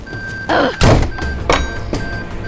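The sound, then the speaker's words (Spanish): A heavy door slams shut with a deep, loud thud, surrounded by a few lighter knocks and rattles, with no voices. “¡Qué puerta más estúpida!”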